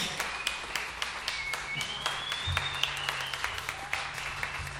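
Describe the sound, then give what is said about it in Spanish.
A crowd applauds steadily for the composer of the piece, from the Faculty of Music, many hands clapping in a dense, sustained wash of sharp claps with a few louder ones standing out, plus faint whistles and murmuring underneath. “ahí está, por favor, un aplauso para”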